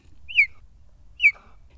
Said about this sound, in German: Ist kein Vogel, obwohl Sie völlig richtig liegen. Vom ersten Eindruck absolut ein kleiner Vogel noch dazu. Ja, genau. Aber es ist ein Gepard. Ein Gepard.